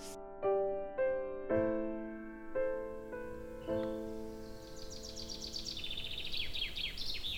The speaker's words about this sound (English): So nice to wake up with the birds and the warm breeze. I love this window.